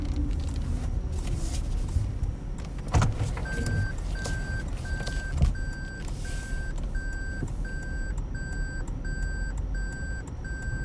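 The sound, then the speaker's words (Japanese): A car reverses in a very tight spot with a steady, regularly repeating high-pitched warning beep, about two beeps per second, over a constant low engine rumble and a few brief clunks. “ちょっと今バックがギリギリですうわギリギリだった歩行者がいて下がれなかった”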